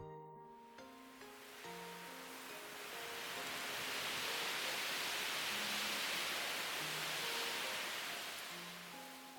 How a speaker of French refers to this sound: Tout à coup, une petite tornade arrive dans ta direction.